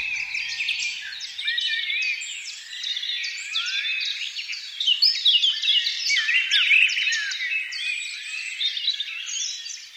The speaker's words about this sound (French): Les merveilleux oiseaux qui parcourent le ciel et peuplent les campagnes, les forêts et nos jardins sont les seuls rescapés des mondes disparus des dinosaures, des survivants et des migrants.